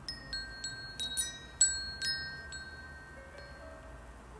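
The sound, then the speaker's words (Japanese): A Woodstock Chimes Temple Bells Trio Terra metal wind chime rings with several bright, sustained tones struck at irregular intervals, its long shimmering notes overlapping and slowly fading, with no voices. “Wood stock社のウィンドチャイム買っちゃった”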